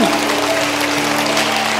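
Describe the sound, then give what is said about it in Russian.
A large church audience claps steadily and loudly throughout, applauding the worship team, a dense wash of applause with a low sustained musical tone humming underneath. “Давайте дадим аплодисменты команде прославления.”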